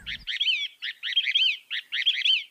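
A songbird sings in three bright, rapid bursts of high warbling chirps with short pauses between, clear and fairly loud with no talking over it.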